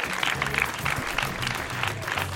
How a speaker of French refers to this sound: Applaudissez-le, s'il vous plaît. Ça fera plaisir, ça donne de la force.